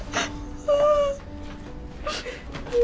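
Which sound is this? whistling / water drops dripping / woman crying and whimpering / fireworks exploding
woman crying and whimpering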